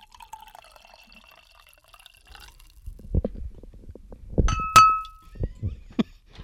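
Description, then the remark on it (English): A drink is poured into a wine glass, with uneven splashing glugs and a single bright glassy clink partway through, after a quiet, faintly fizzy start. “sounds like soda on the microphone.”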